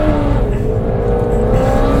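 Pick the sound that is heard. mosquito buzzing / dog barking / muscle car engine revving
muscle car engine revving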